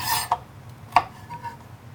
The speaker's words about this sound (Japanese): なんか全く包丁を使わないのもいいなって思ったんですけど、はい、なんか料理してる気分が ないんでにんにくだけはスライスしようと思いました